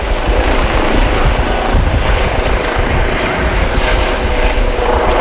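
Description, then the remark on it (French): A helicopter's loud, steady drone with a deep rumbling rotor thump underneath, heard as interference on the 102.2 radio frequency, filling the whole few seconds without letting up and with no voices over it. “c'est qui qui est venu en hélico euh, aujourd'hui, là, ce soir”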